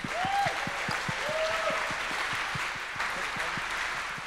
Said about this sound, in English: Thank you. Okay, now let's applaud. We've got representatives of, first of all, the youth coming in.